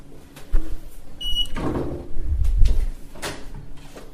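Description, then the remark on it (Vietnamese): A short electronic beep from a hotel room keycard lock, followed by the clunk of the door latch and the guest room door swinging open with low rumbling handling sounds, with no talking. “khi mà không có tiếng khách trả lời bên trong thì có nghĩa là chúng ta sẽ được dùng thẻ khóa để mở cửa vào phòng và sau cái tiếng tít nhỏ như vậy chúng ta sẽ uh, mở phòng”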